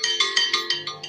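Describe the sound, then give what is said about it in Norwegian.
A phone ringtone plays a quick run of bright electronic tones, about seven pulses in steady rhythm, fairly loud, with no talking over it. “nå ringer telefonen, så skal jeg slå den av.”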